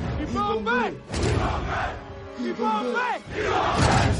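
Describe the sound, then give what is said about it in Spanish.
Black Panther's voice bellows a rhythmic war chant calling the troops of Wakanda to battle in the film Avengers: Infinity War, answered by a roaring crowd of many voices, the call and response repeating twice with loud, full-bodied shouts filling the space. “En Wakanda, en, Wakanda en, Black Panther, en Wakanda en Infinity War sobre todo, cuando él llama a las tropas y él hace el grito ese de”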